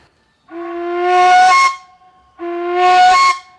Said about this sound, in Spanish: Entre esta pluma le llegue más allá, el sonido es más suave si se los jalas un poquito se pone más dura la gaita.